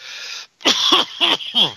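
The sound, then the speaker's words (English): A breathy rush of air followed by several rough, throaty bursts in quick succession, like forceful coughing and throat clearing, fairly loud. “cough them out. Get a good cough.”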